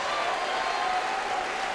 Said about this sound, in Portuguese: Vamos aplaudir o Verbo. Oh glória! Senhor, estas palmas são para ti.